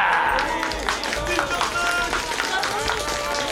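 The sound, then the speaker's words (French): A crowd applauds with a dense, steady patter of clapping that holds at an even loudness throughout, with excited voices calling out underneath. “Les bras du chapeau de filet crasse se mettent à applaudir. Applaudissez-moi”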